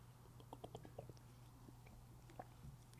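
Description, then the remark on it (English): Quiet sips of water with small wet mouth clicks and slurps scattered over a few seconds, set against a low steady hum, with no one talking. “The scriptures, the spirit likened to as water, take your sips, get doused, drenched. So that's what I'm doing.”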